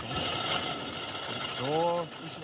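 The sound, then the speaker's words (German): An ice core drill bores into ice with a steady, gritty mechanical grinding and rattle, and a short rising tonal whine swells briefly near the end before the grinding carries on. “Wir müssen sehr aufpassen, dass der Bohrer nicht stecken bleibt, dass man rechtzeitig wieder rausziehen.”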